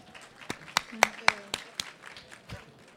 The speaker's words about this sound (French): Bravo, on applaudit euh, le courage